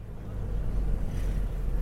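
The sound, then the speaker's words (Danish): Steady, heavy low-pitched rumble inside a car carrying about nine people on a trip north of the capital to Nimba, engine and road noise droning continuously at an even level for the whole stretch, with no voices. “Jamen, øh, vi øh, sidder i bilen, øh, ni mennesker sådan cirka, øh, på vej til Nimba, som er en anden af de her øh, lokale afdelinger.”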